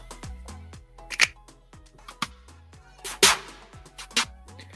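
Crisp hand claps and finger snaps from a collection of breakdance and hip-hop sounds land about once a second on a steady hip-hop beat, punchy, over a thumping kick drum and deep bass line.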